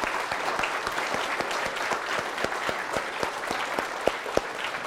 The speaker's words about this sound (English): And then all the other teachers were so instrumental in guiding these children. Would you join me just in giving a round of applause for all of them?